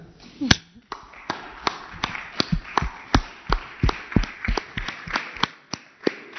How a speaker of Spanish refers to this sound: Los únicos que han sido este, que han actuado de manera heroica, que han resistido ante esta situación y que no dan de baja a sus trabajadores. Un aplauso para ellos, ¿verdad?